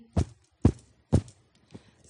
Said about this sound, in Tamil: சந்தோஷம் உண்டானால் காலடி